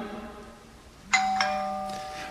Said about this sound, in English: Uh, that, that's a little confusing, isn't it? You know, to, to wake up to the doorbell. Yeah, I'm not sure if I just get up or I got to go to the door.